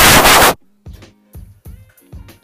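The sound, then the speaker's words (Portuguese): A voice mimics a running washing machine, starting with a loud, hissing whoosh and then a few rhythmic, chugging vocal pulses, like a drum tumbling. “Pá, mas é assim, estou aqui em frente à máquina de lavar roupa que não está a lavar, senão vocês só ouviam tipo.”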